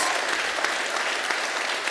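An audience claps steadily, a dense wash of many hands applauding at an even, moderately loud level for a couple of seconds, with no voices standing out.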